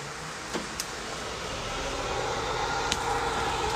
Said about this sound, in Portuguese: Aqui uma outra particularidade, ele vinha com um ventilador de painel. Então quando você aciona ele aqui, ele liga o ventilador. Vou acionar aqui que eu fiz questão de, de arrumar, deixar ele funcional. Ó.